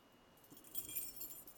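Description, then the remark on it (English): Keys jangle in a continuous metallic shimmer, starting softly and swelling after a moment into a dense, rattling clatter that keeps going. It is fairly faint, with no voices. “And the sound that echoed in that square was the sound of them ringing a half a million set of keys to demonstrate that they were now free.”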